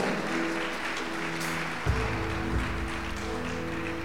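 A church audience applauds the Lord in a steady, dense wash of clapping that holds for about four seconds, with a low sustained musical tone running underneath and no speech.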